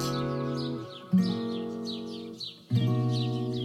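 birds chirping

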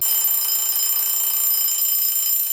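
alarm clock ringing

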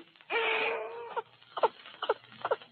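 baby crying

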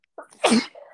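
sneeze

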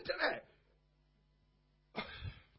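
small cough

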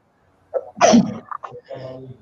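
sneeze

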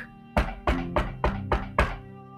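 knocking on a door

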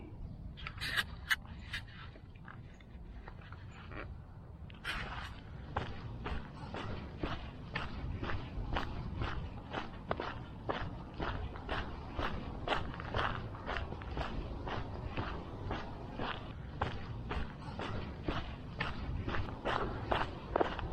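footsteps walking

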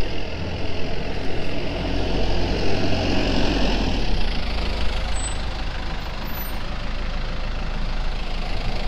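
delivery truck engine idling

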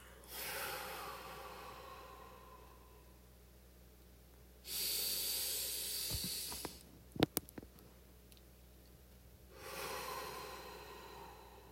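breathing out

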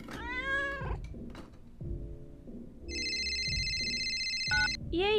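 cat meowing

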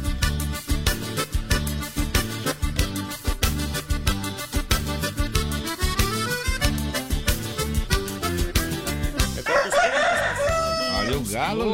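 rooster crowing

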